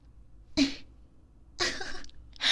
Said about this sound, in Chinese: 竟然咳嗽了，嗯，是觉得痛苦吗？